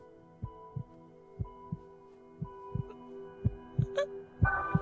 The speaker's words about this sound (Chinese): 这段我觉得动画处理的非常好的一个细节是，米卡萨的第一个反应是听艾伦的心跳声。